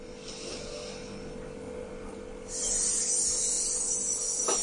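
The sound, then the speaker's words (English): A steady, even hiss of breath pushed through the teeth as a demonstration of an even breath, held for several seconds without a break, growing brighter and a little louder halfway through. No one speaks. “And we can tell if that's happening by hissing.”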